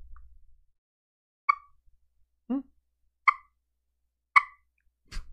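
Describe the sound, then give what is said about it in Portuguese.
A simple small ball-shaped turkey call device, used to imitate a turkey, gives a handful of short, sharp clucks, spaced about a second apart with one lower, hollower note among them, fairly loud against a quiet background. “É uma bolinha bem simples assim, com essa com esse negocinho aqui que você você vai imitar.”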